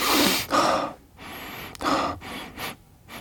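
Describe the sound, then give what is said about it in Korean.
Several sharp, loud sniffs in through the nose, coming in quick bursts with brief pauses between them, as someone checks whether air comes in through both nostrils, with no talking. “양쪽으로 다 들어오는 것 같은데 지금 그 한쪽 한쪽으로 한쪽으로 하고 한쪽으로 4시간 또 다른 한쪽으로 4시간 이렇게 왔다 갔다 한다는 얘기예요?”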